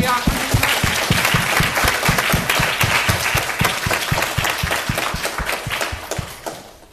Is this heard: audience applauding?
yes